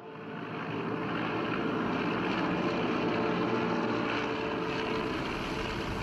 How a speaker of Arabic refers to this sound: في الساعات الأولى من صباح يوم السادس من أغسطس آب عام 1945 تقلع طائرة من طراز بي 29 من قاعدة جوية أمريكية بجزيرة تينيان في المحيط الهادي وتتجه إلى اليابان.